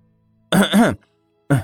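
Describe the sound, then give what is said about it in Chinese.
A voice acts out two feigned coughs: a longer, voiced throat-clearing burst, a pause of about half a second, then a shorter second one. Both are fairly loud and stand alone. “他掩饰的咳嗽了两声，又正色道：”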